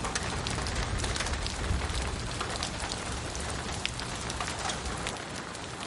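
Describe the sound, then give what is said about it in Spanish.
Water falls through a grate in the ceiling of a high-ceilinged office in a steady, hissing patter, dense splashes and drips running without pause at an even, fairly loud level, with no voices. “El agua cae por una rejilla en el techo.”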